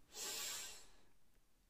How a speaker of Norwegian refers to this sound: Vi gjør det en gang til. Pust deg godt inn. Og hold pusten. Og så gjør vi det som en gang til. Pust godt inn.